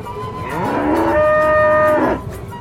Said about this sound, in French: Sherlock, il y a une vache sur ma place.